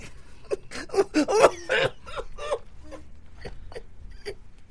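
Close, breathy bursts of laughter-tinged coughing come in a quick cluster of several hacks, then trail off into fainter short breaths and small catches.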